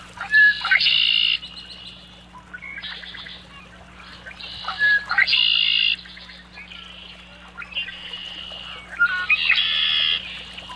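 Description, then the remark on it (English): A red-winged blackbird repeats its buzzy, trilling song in several loud bursts a couple of seconds apart, with a low steady hum underneath and no voices. “Here's the familiar red winged blackbird.”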